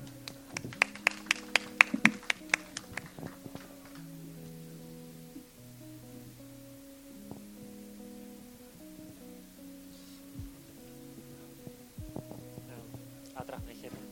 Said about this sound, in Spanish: Un aplauso.